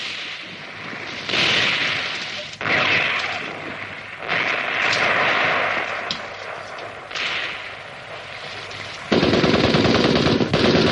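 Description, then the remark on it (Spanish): Sustained machine-gun fire from militiamen atop a cliff crackles in loud, rapid bursts with brief pauses between them, ending in a heavier, continuous volley. No voices are heard. “Sin embargo, en lo alto del acantilado, los milicianos preparan la ametralladora.”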